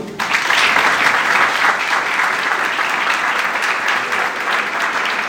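Sustained audience applause, a dense wash of many hands clapping that starts abruptly and holds steady and loud for about five seconds, with no voices standing out.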